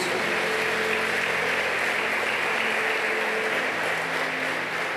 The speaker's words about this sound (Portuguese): Se você crê, aplauda ao Todo-Poderoso aí em nome de Jesus.